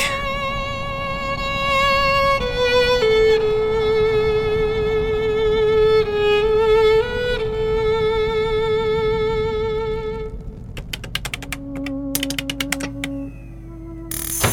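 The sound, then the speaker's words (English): Hissing radio static carries warbling, steady tones that shift pitch every few seconds, then gives way to sharp clicks and crackles with short, lower beeping tones near the end. No one speaks. “What, what the hell is that? Radio? That's. That's radio.”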